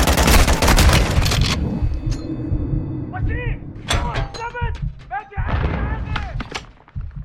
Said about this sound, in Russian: Стрельба крутая, такая же, как была в Modern Warfare 1 от 2019 года.